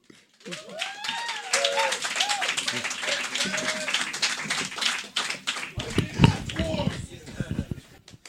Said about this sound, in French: et, d'ailleurs, euh, pour commencer cette belle soirée qui vous coûte absolument rien, s'il vous plaît, mesdames et messieurs, une grosse main d'applaudissement pour quelqu'un qui vaut au moins deux piastres, lisse.